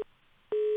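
A telephone busy tone after a dropped call: a steady, low-pitched electronic beep cuts off, pauses for about half a second, then returns loud and sustained, with no voices.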